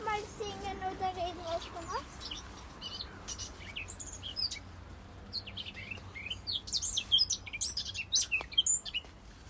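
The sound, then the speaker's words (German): A pet bird chirps and tweets in a steady stream of quick, bright calls, fairly loud, with some soft voices and background noise. “Na, weißt das viel zu erzählen, das Vogel.”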